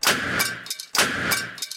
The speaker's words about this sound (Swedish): Det var vinkelväxeln som hade havererat. Som sagt. Varje varv på kardanen smällde som ett mindre pistolskott.